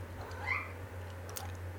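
A single short meow from a cat named Mozzarella, faint and in the background, rising and falling over a steady low hum, followed by a few soft clicks; no one speaks.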